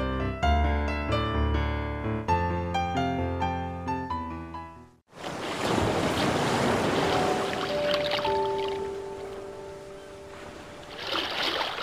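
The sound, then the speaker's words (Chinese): A short stretch of piano-like music gives way to a steady, loud wash of sea waves on the shore, with a faint high tone drifting through the surf, the sound of the sea played on the radio station FM 99.5 New Radio. “你听，海哭的声音啊，不好听吗？”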